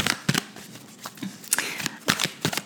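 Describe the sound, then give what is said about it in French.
Oracle archetype cards are shuffled to draw a card: a run of quick, crisp riffling bursts with short pauses between them, fairly soft and with no one talking. “Bon, je vais te tirer quand même une petite carte euh, des archétypes pour me faire pardonner du petit bruit.”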